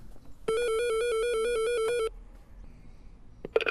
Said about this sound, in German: Und äh, ja, kann man gleich mal hören, wie das klingt, wenn man bei ihm an der Tür klingelt.